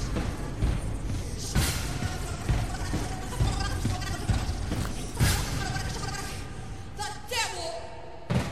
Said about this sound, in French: C'est une chèvre ah, c'est vachement mieux.